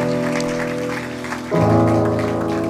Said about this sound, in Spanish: Porque usted no le da una ofrenda de palmas, una buena ofrenda de palmas al Señor.